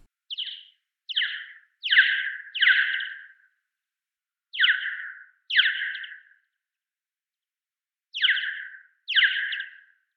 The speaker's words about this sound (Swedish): Jag tänker att vi kan lyssna på ett exempel. Här Brunlångöra.